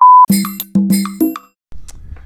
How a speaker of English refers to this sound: Seemed like uh, I got interrupted. My phone is linked to my computer here and phone call came in and kind of booted me off my recording.